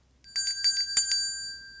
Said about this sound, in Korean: 딩동댕!